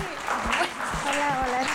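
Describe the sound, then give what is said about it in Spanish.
Steady clapping from a group welcoming a family therapist as a guest fills the short stretch, with voices calling out and cheering over it at a fairly loud, even level. “ya le gritas a la gente y le aplaudes”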